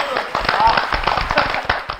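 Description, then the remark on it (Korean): A crowd on a gospel broadcast applauds steadily after a moving worship song, many hands clapping in a dense, continuous patter with sharp irregular transients, loud, with a voice briefly audible underneath. “야, 정말 찬양이 아주 심금을 울리는 게 박수 치는 이유가 그거예요.”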